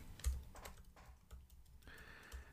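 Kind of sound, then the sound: tool, typing a message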